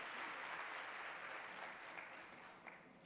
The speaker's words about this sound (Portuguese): Em nome de Jesus, você pode dizer amém e aplaudir Jesus bem forte, tomando seu assento.